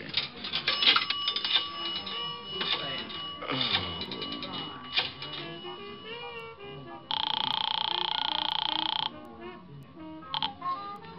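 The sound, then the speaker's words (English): A telephone at the end of a bar being dialed: a series of quick clicks and rattles, then a loud, steady buzzing tone lasting about two seconds, with faint background noise throughout. “Now, where's your phone? Uh, right over there, the end of the bar.”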